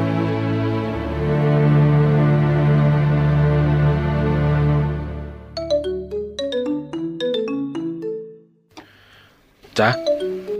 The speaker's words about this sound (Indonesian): ada telepon dari rumah sakit nih.